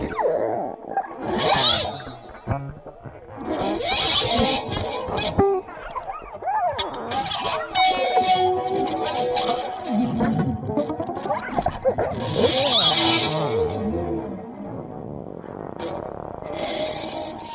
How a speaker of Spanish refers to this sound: El éxtasis del oído de Dalí. Solo música electroacústica.